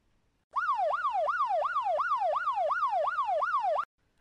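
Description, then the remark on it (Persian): A siren heard from afar wails in a fast, repeating rise-and-fall pattern, about ten sweeps in just over three seconds, holding a steady, fairly strong level before cutting off abruptly. No one speaks. “از دور صدای آژیر به گوش رسید”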